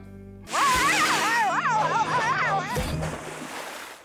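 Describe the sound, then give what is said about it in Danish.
A loud, hissing rush of water spraying from a water cannon bursts in and holds steady for a few seconds, with a high, wavering vocal wail riding over it before the spray slowly fades. “Au, au! Vandkanon!”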